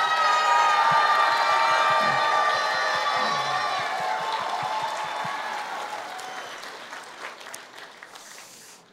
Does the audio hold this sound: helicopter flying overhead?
no